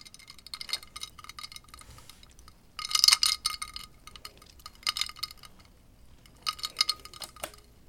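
Ice cubes clinking in water, bright glassy tinkles arriving in a few separate bursts with quieter rattling between them; moderately loud, with no voices.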